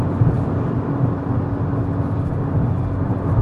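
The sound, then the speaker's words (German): Steady, loud low-frequency rumble inside a car accelerating onto the A7 motorway, a constant droning road and engine noise with a faint tonal hum and no voices. “An der Lautstärke des Autos merkt ihr, ich bin jetzt auf die A7 aufgefahren.”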